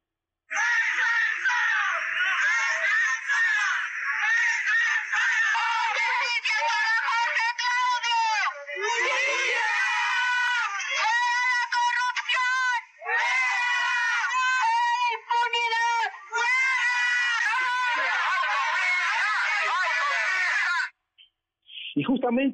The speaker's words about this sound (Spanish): Las consignas no se hicieron esperar. Escuchemos.